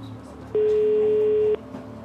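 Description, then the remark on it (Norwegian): A single steady telephone ringing tone, one long beep of about a second, as a call is placed to a police lawyer, heard clearly over a faint low background hum. No one speaks. “ringer politijuristen.”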